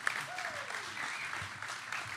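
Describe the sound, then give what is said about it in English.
A crowd applauds Mike Parson with steady, dense clapping that holds at an even level throughout, with a brief sliding whistle-like tone cutting through early on. “Give him a big round of applause, folks.”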